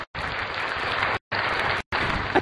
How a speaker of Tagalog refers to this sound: tagal mong palakpak yun.